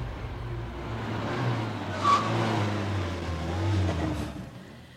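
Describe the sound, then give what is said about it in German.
A van's low engine rumble drones steadily, rising and falling slightly with a brief squeak midway, then eases off as the vehicle slows and comes to a sudden stop after a sharp right turn. No voices. “Schließlich hielt der Van nach einer scharfen Rechtskurve unvermittelt an.”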